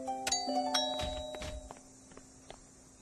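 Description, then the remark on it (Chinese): A doorbell at Naimiko's house in Japan rings with two bright chime tones, ding-dong, followed by a few soft knocking thumps and shuffling steps, with no one speaking. “按门铃吧，许琪。”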